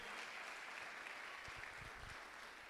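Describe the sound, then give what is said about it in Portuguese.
Steady applause from a church crowd for the church's two evening cooks, a dense wash of many hands clapping at an even level throughout, with no voices standing out. “Vamos aplaudir o nome do Senhor Jesus aí.”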